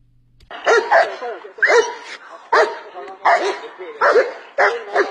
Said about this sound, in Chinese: 警犬中队的铁门还没拉开，我们就听到了此起彼伏的叫声。当我们一步步靠近，警犬小家伙们一个个都站起身来，对着我们使劲儿的叫。这急促的叫声不是来自家犬的欢迎，而是警犬的职业习惯。